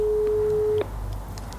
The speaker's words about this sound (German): Oh, keiner ans Handy. Ich weiß ja nicht warum.